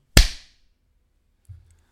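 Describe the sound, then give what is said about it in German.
A single loud, sharp hand clap rings out with a short decaying tail, followed by silence and a faint low thump about a second later. “also wir müssen jetzt erstmal hier reinklatschen.”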